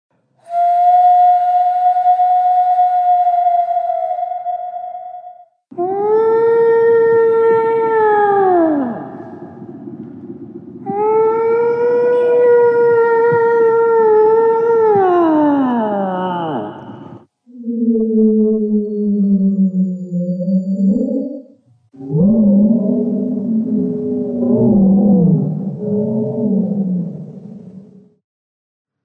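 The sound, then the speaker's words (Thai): A whale calls in a series of loud, drawn-out moans, some holding a steady tone and others sliding downward in pitch, followed by lower, wavering groans. No one speaks. “ก่อนที่จะเฉลยนะ ไปฟังเสียงของวานกันหน่อยดีกว่า”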